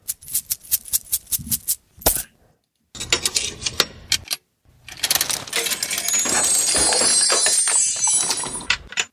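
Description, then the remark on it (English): Metallic coins clink and rattle inside a bag of magic coins as they are dug out, starting with a few sharp jingles, pausing, then swelling into a steady shuffling jangle as the coins are stirred around. “get that doggone bag of magic coins out. Let's see. I'm gonna dig out those coins.”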